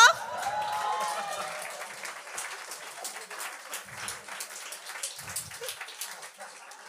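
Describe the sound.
An audience breaks into applause for the performer's father, who came to see him that evening: dense, steady clapping from many hands that lasts throughout, easing slightly toward the end, with a brief voice rising over it at the very start.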